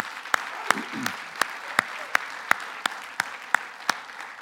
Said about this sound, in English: rise up and explode in gratitude for your nation the United States of America. Let's give an applause for our nation.